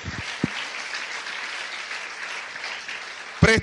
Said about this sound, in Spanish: Y aquí estamos alegres en victoria, alabando al Rey de Reyes y Señor de Señores. Aplauda a Cristo Jesús, iglesia.